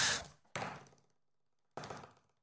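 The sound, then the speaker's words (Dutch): Three hollow knocks on a tabletop, meant as a drum roll before winners of a book giveaway are announced: two quick ones, a pause, then a third, each with a short ringing decay. No one speaks. “Dus uh, tromgeroffel.”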